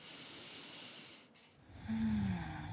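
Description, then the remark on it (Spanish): A slow, deep breath: a long airy inhale, a brief pause, then a fuller, louder exhale with a faint hum. No one speaks. “Tomamos una profunda respiración”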